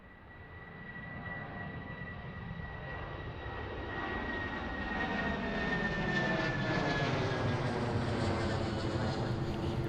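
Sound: airplane flying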